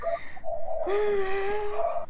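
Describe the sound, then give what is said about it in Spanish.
A neighborhood dog from around a house vocalizes in a few drawn-out, tonal cries, the longest stretching about a second, with no talking over it. “El perro de por tu casa también está que, está que sale en el podcast hoy.”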